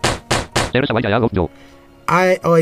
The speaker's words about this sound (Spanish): Y cuando tu tipo no le afecta mucho o el ataque de, de ese tipo no le afecta mucho al enemigo, se escucha así.